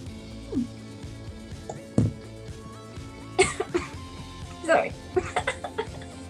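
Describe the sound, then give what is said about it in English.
A soft, restrained, polite cough in a few brief, muffled bursts, with low voices and light chuckling in the background. “It was the, um, the most polite uh, cough I've ever heard.”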